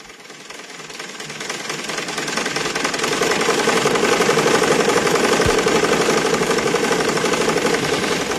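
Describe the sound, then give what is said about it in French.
A sewing machine runs steadily with a fast, dense mechanical clatter, growing slightly louder after the first few seconds and staying continuous, with no voices. “Il y en a à qui ce petit bruit rappelle beaucoup de choses Beaucoup d'enfants ont été euh, bercés par le bruit de ces machines à coudre dans certaines banlieues, arméniennes ou non.”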